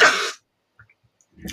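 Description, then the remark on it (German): A loud sneeze bursts out at the start, followed by a long quiet pause and then another short, breathy burst of noise. “Gesundheit.”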